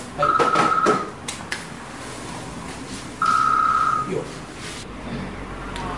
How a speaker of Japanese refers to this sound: あ電話だしかも個人携帯だちょっと取ろうか